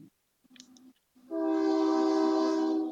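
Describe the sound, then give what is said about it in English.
A loud, sustained train horn blares for well over a second with rich stacked tones as a train passes, preceded by a few brief clicks and a low rumble. “Was that Sam's train? It is.”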